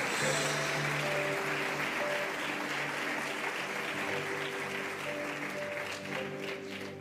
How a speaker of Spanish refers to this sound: Aleluya. Dale palmas fuertes al Señor.